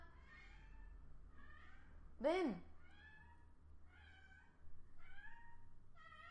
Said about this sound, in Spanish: Esa es mi gata que quiere que juegue con ella y cuando quiere que juegue con ella siempre maulla así.